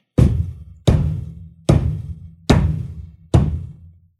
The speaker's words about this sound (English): And then they just start rhythmically banging on his door.